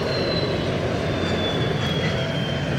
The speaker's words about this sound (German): Ein ungewohnter Klang. Ein Bauzug.